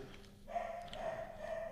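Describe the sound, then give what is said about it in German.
A dog barks faintly, its voice drawn out into a wavering, sustained call lasting over a second, with no one talking. “Oh, und der Hund.”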